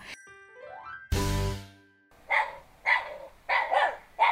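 A dog barks four times in a steady rhythm, loud, after an opening sound effect with a rising whistle and a booming, ringing hit. No one speaks.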